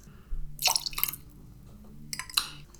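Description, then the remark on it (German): Currant syrup is poured in to top up a drink at the end of mixing it, in two short bursts of wet trickling and dripping, bright and splashy, separated by a brief pause, with no one talking. “Und das Ganze wird dann zum Schluss aufgefüllt mit Johannisbeersirup.”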